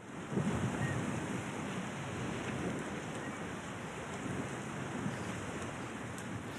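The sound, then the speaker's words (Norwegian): A steady, broad wash of ocean waves breaking on an island shore rolls on without a break, fairly loud, with some wind noise buffeting the microphone. “Små øyer, et enormt hav.”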